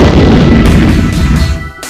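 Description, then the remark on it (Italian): A loud, heavy thud of a woman falling, with a deep booming rumble that lingers for a couple of seconds before easing off. No one speaks. “E che fosse a botta?”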